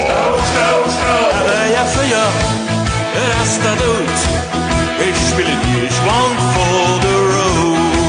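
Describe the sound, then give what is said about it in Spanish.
Loud rock and roll music played by a band plays steadily throughout, a dense full-band mix with driving bass, bright guitars and what sounds like a singing voice, without pause. “Esta es la música rock and roll.”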